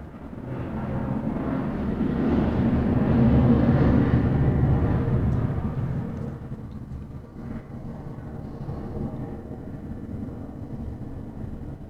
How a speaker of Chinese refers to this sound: 诶，我家的战斗机又来了，超大声的，不知道有没有听到？我先等它飞过去。